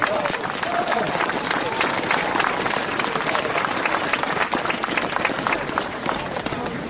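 An outdoor crowd applauds steadily for several seconds, many hands clapping in a dense, continuous wash at an even, fairly loud level, with no pause or buildup, welcoming a speaker who is about to talk.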